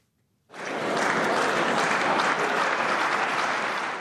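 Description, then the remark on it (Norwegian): Newly elected members of the German Bundestag in Berlin give sustained applause as leading Christian Democrats and Social Democrats march in to sign the final coalition agreement. The clapping is a dense, steady wash that starts abruptly after a brief silence and stays loud throughout, with no talking. “Ledende kristeligdemokrater og sosialdemokrater toger inn til applaus fra landets nye folkevalgte for å underskrive den endelige avtalen om en samlingsregjering.”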